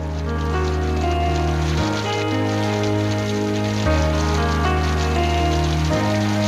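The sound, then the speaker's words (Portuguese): Steady rain patters continuously beneath slow, sustained musical chords that shift every couple of seconds, with no voices, creating a soft, even wash of falling water throughout. “Puxa sempre mais a emoção a chuva, não é?”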